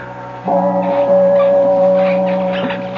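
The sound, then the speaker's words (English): A Chinese gong in a dining room is struck once by Chichi, a Capuchin monkey, its deep metallic tone ringing out loudly and sustaining with a steady hum; a second light tap seems to come near the end. “the Chinese gong in the dining room. It's Chichi, imitating what I did.”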